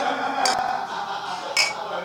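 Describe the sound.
Beer glasses clink together in a toast, two bright, sharp clinks about a second apart, set against a low murmur of voices and room noise as the men say "Prost".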